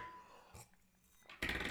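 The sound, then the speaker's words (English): A wine bottle being opened: a short sharp crack, a quieter pause with faint clinks, then a loud, sustained rush of hiss and glassy rattle at the end. No one speaks. “Cheers, the wine's open.”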